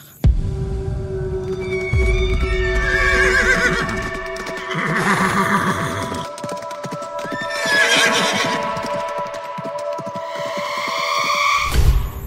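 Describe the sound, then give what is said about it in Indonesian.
Horses neigh and whinny repeatedly in high, wavering cries over a steady rumble, with a continuous clatter of hooves running underneath. No one speaks. “kok kayak ada suara kuda kayak ada suara kuda lagi inilah kuda meringkik lah”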